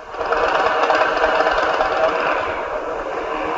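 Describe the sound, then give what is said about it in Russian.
A motorcycle engine runs steadily through a throaty aftermarket exhaust silencer whose sound can be adjusted lower, fuller and louder; a loud, continuous rumbling drone with a fast rattling pulse and no one talking. “Для таких любителей его фирма делает специальные глушители. Их звук можно регулировать, делать ниже, полнее и громче.”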